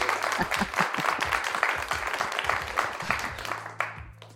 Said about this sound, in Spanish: Un aplauso y todo.